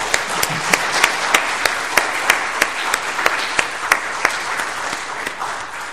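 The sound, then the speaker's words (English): An audience gives the evening's speakers one more round of applause, steady for about six seconds, many hands clapping together in a dense, even wash with sharper individual claps standing out, without any talking. “Can we give them one more round of applause, please?”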